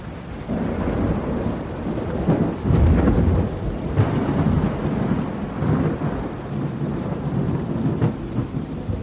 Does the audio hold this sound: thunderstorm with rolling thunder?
yes